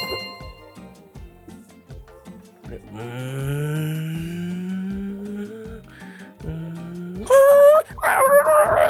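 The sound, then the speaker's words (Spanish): A small dog whines in a long, drawn-out whimper that slowly rises, then lets out a burst of high, sharp yelps near the end, all over a steady background beat. “¿Qué raza es ese perrito, güey?”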